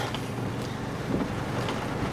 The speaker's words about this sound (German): der Sturm ist da. Also Nebel peitscht um die Fenster. Und ich sehe gerade vielleicht so, ja, so 50 Meter oder so Straße ich muss jetzt echt ein bisschen langsamer fahren.